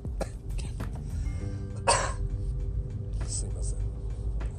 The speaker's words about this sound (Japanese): 面白くて咳しちゃいました